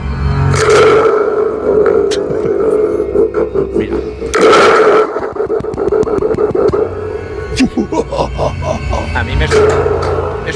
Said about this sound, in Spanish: Vamos con otro efecto que se llama el tubo de terror, ¿vale? Este artefacto nos sirve para crear desasosiego y escenas de terror.